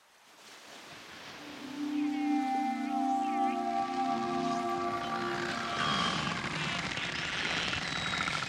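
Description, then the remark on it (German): Narwhal vocalizations recorded underwater: long droning tonal calls with buzzy harmonics and a few higher wavering whistles, set against a steady rushing hiss that swells up during the first two seconds. “Wer solche Töne einfangen will, muss sich auf eiskalte Gewässer hoch im Norden begeben, in die Nähe der arktischen Packeisgrenze, sich dann sehr leise annähern und im Wasser oder in den Spalten im Eis gute Hydrophone einsetzen.”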